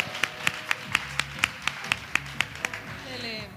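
Steady, rhythmic hand clapping, about ten sharp, crisp claps in an even beat, with a faint low murmur underneath, then the clapping stops near the end.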